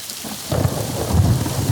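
Steady rain falls with a constant hiss, joined by a deep rumble of thunder that swells after the first half-second and rolls on continuously. No voices are heard.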